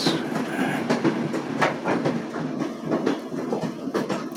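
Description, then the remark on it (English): A train rumbles past close by, its wheels clacking over rail joints in a steady rhythm against a continuous loud roar, with no voices. “I also, I also uh, moved over here next to the train tracks.”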